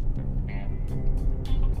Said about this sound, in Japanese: 車を走らせています